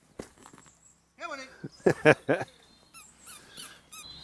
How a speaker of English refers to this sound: Nice, and some nice dogs coming.